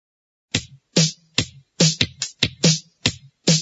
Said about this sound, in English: Listen, then clap and practice.